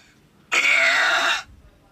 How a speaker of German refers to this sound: Was war das? Das war äh, der lauteste Rülpser der Welt. Mm. Da, mm. da hat eine Frau den Weltrekord gemacht.